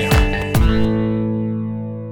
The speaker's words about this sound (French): Comme l'a dit ce petit jingle d'intro, vous êtes en train d'écouter Rétrosphère, une émission consacrée à l'actualité de la saga MP3.